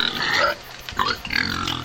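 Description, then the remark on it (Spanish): Wild pigs grunting in a couple of loud, rough bursts with a short lull in between, harsh and squealy at times, no voices. “Cerdos, cochinos, jabalíes, llámales como quieras a los cerdos salvajes, no son otra cosa que invasores.”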